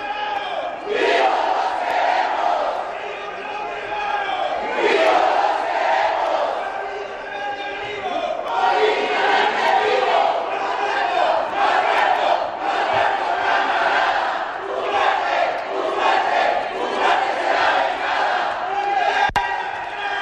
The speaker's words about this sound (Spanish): Y estamos escuchando precisamente lo que están, son estas arengas de parte del, de Morena y todos sus senadores. Los quieren vivos.